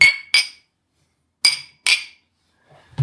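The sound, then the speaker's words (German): Glasses of a bourbon barrel-aged Three Bean Stout with cherry juice clinking together in a toast, four bright, ringing clinks in two quick pairs, fairly loud, followed by a faint murmur at the end. “Wir haben noch gar nicht angestoßen hier.”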